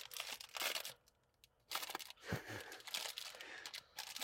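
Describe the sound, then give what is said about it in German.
Crinkling of a Walzgut chocolate wrapper or packaging, brought for tasting: bursts of bright, crackly rustling with a short quiet gap in the middle, then more irregular crinkles and crackles. No one speaks. “Entschuldigung fürs Knistern.”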